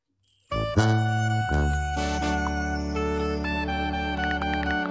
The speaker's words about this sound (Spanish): Vamos a escuchar una rolita que tienen preparado ahí el producer, que anda enamorado.